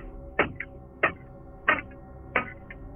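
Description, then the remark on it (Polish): Four loud, sharp knocks at a steady, even pace, each followed by a faint lighter tap, struck on a hard surface inside a car to demonstrate knocking on a window, against a low background hum. “słyszę nad moją głową w te okno pukanie, miarowe, głośne pukanie, może ja panu to pokażę, jestem w samochodzie, więc nie mam tu okna, ale ale coś ten deseń.”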